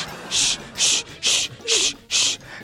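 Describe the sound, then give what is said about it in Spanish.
Someone vocally imitates a handsaw: five even, raspy hissing strokes in a steady back-and-forth rhythm, fairly loud, with brief gaps between strokes. “Y el vato con el serrucho cortando las patas a la suegra. Ese sonido es como que está haciendo raspados, ¿ah?”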